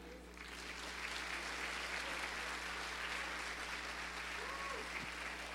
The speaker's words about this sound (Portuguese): Aplauda mais forte.